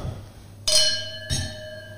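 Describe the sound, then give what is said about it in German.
Two bright clinks of wine glasses touching in a toast, about half a second apart, each leaving a clear ringing tone that lingers and fades slowly. Fairly loud, with no talking. “So, dann und sagen, dann, dann stoßen wir doch mal mit diesen edlen genau. Tropfen an.”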